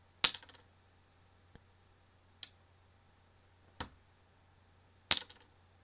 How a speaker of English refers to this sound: You guys hear that? What is that? Dude, this is so cool. That's just me um dropping a, a, a um a um, cap, a bottle for my water, um, on um, the table.